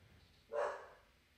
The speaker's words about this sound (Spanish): y disculpen el perro, eh, Tony Boy,